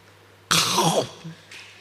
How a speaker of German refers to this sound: Wollen Sie in diese Brotkruste mal reinbeißen vielleicht? Achtung.